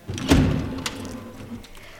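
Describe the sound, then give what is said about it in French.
The office door of the Union Téléphonique in Buenos Aires closes with a heavy low thud, followed shortly by a lighter click or knock, then a faint murmur trailing off. “Tout partit donc de la conversation derrière cette porte.”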